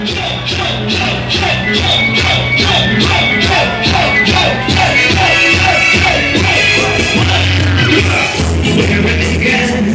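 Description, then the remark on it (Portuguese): Loud, steady reggae music blasting from a trio elétrico carnival sound truck parading a reggae bloco along Avenida Beira-Mar, with a heavy pulsing bassline and rhythmic offbeat chops, while a crowd of reportedly over 100,000 revelers yells and whoops underneath. “Esse som é do trio elétrico, que arrastou uma multidão de regueiros e regueiras.”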